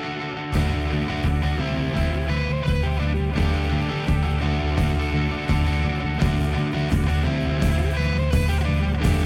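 A band plays a steady, loud instrumental passage with sustained distorted-sounding chords layered over a thick bass and regular drum hits, with no singing or talking.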